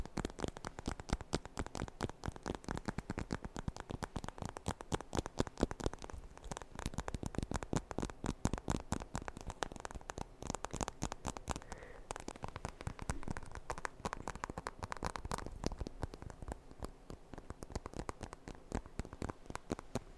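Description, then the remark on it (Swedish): A pet cat eating, with rapid, steady crunching and clicking chews repeating throughout at a fairly even, quick rhythm, moderately loud and with no one talking over it. “Nu äter min katt igen. Om ni hör någonting som låter.”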